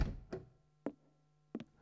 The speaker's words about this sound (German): Tür auf. Sofort. Los, rein.